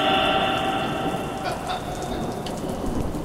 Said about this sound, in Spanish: Y entonces este mato volteó, yo imagino, volteó al cielo y dijo, Señor, y se abrió el cielo y llovió.